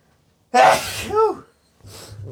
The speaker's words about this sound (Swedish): Nu håller på och nyser igen.